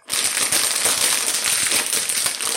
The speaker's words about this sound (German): Dieses Spiel ist eine Tüte Chips. Ihr habt es wahrscheinlich schon am Geräusch erkannt.